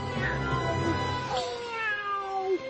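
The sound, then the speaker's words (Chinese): A human voice mimics a wild cat's meow in a drawn-out, wavering, high-pitched cry that slides and bends for a couple of seconds, fairly loud and alone. “鹧鸪哨学着野猫的叫声，喵”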